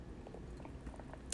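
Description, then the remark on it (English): Quiet mouth sounds of someone sipping coffee, with soft wet smacks and a brief louder slurp near the end; no talking. “Sipping on a little coffee.”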